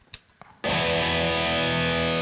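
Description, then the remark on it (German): A few quick muted string taps, then a loud distorted electric guitar chord rings out and sustains steadily, with the guitar placed on the right and its reverb spread to the left. “Genauso, Gitarre ist diesmal auf der rechten Seite, der Hall ist auf der gegenüberliegenden Seite.”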